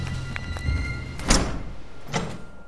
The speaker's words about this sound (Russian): Я распахнул дверь, ведущую внутрь здания управления погрузкой, и остановился.